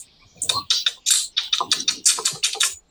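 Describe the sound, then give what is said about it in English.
A voice imitates chittering insect mandibles with a rapid run of about a dozen sharp, dry mouth clicks and clacks, fairly loud, in a quick uneven rhythm with no words. “And then he would slip into his own, like, indigenous tongue um, of clicking and clacking mandibles.”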